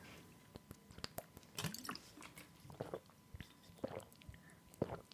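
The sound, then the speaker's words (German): Quiet sipping from a drink of water, with wet mouth clicks and a few soft swallowing gulps spaced over several seconds. No one speaks. “So, Leute, wir trinken jetzt alle mal einen Schluck.”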